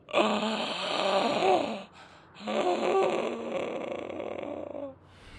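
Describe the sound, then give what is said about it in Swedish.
Two long, harsh guttural throat sounds from a man with his head thrown back and mouth wide open, rasping and groan-like, fairly loud, separated by a short breath-length pause with no speech around them. “Och du kan höra ett ljud, ett obehagligt strubljud ekar ifrån honom.”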